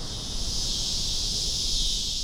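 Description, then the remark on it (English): A dense, continuous electric buzz of cicadas fills the air, loud and steady throughout with no breaks, like a chorus of insects droning together, produced by the timbal structures on their abdomens. “So cicadas have a structure on their abdomens called timbals.”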